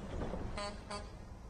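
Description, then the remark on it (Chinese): Two quick car horn honks in a row, each short and brassy with a buzzy tone, sounding over a steady low rumble, from a Ford car slowly driving into a road and stopping in front of an arcade-style (qilou) building. “一辆福特汽车缓缓驶进第十浦路，在一栋骑楼建筑前停下。”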